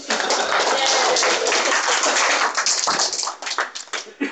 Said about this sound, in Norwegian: Applaus.